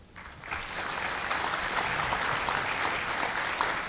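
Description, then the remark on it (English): An audience applauds steadily to vote on which statement is the fiction, a dense crackle of many hands clapping that swells within the first half second and holds at a fairly even loudness to the end, with no voices. “So again, applaud if you think it's, this is the fiction.”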